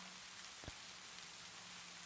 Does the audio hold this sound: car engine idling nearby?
no